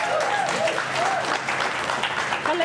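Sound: loud audience applause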